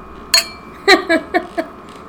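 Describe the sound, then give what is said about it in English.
Glasses clink together in a toast, about five quick, bright chimes with short ringing tails, fairly loud against a quiet background. “Cheers to that. Exactly. Ting.”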